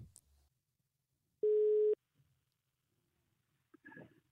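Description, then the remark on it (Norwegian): A single steady telephone ringback tone beeps once for about half a second, clear and fairly loud against near silence, as someone tries to call a man who is a family friend, followed later by brief muffled rustling sounds. “Så jeg prøver å ringe han nå.”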